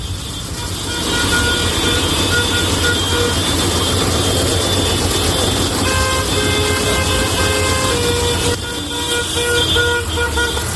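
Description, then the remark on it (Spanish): Heavy diesel engines rumble steadily, with horns sounding in long sustained blasts over the top, as a large tractor protest convoy moves slowly and blocks the central part of the town of Puebla de Sanabria, in the north of Zamora. “Estoy en Puebla de Sanabria, en el norte de Zamora y aquí hay una gran tractorada que está cortando la parte central del pueblo, de tal manera que tenemos que ir muy despacio.”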